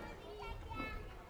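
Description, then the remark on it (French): A busy background of children playing at the Festival d'Aubagne 2021: overlapping young voices chatter and call out continuously, fairly soft, with no single voice standing out. “Comme vous pouvez l'entendre derrière moi, c'est dans l'enfance que nous nous plongerons aujourd'hui”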